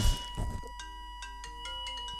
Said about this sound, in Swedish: Larmet gick här så vi fick larma av.